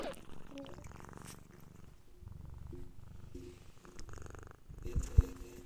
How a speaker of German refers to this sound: Schnurrt bei dir gerade eine Katze? yes. Ja! oh, Entschuldigung. Ich höre es. Baby war es so, ist es wieder ein Flugzeug im Hintergrund? Nein, es ist eine Katze, die ins Mikro schnarrt.